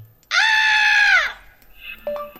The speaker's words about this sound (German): Cool, kannst du schreien? Okay.